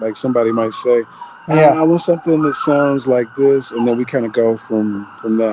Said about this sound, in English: Sorry, some sirens in the back. Yeah, sounds like America. yeah, yeah, it's definitely LA.